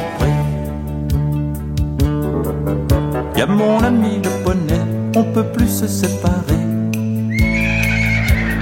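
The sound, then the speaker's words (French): A horse whinnies over a steady musical backing, with quick rhythmic clip-clop hoofbeats trotting along throughout; the neighs come in short wavering bursts, fairly loud. “Quand je grimpe sur son dos, il part au petit trot.”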